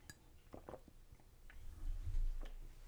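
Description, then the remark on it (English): Someone takes a quiet sip of tea from a cup, with a few light clinks and soft mouth and swallowing sounds, followed by a low muffled rumble. No one speaks. “my my throat is closing up, so I'm gonna have a little sip of my tea.”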